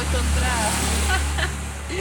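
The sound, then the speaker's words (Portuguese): A passing motorcycle's engine drones steadily, a low, fairly loud rumble that holds through the whole moment while people talk over it. “Mais uma moto passando aí, valeu pela participação podcast.”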